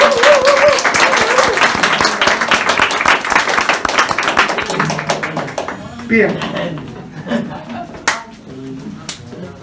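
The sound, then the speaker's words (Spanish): A church audience applauds after a prayer with dense, rapid clapping that fills the first six seconds, then thins out into scattered claps as a voice begins speaking over the fading applause. “Damos un aplauso.”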